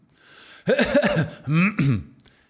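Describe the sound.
A person vocally imitates the throat clearing someone does after coughing, a few rough, guttural bursts in quick succession, fairly loud, with no other talking.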